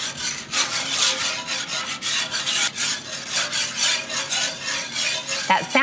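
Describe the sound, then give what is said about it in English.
A whisk scrapes steadily against the bottom of a metal pan, a continuous rasping in quick repeated strokes, with no one speaking; milk is being whisked into gravy while the browned bits left in the pan after cooking meat are scraped up. “So you want to scrape all of that up so it becomes part of the gravy.”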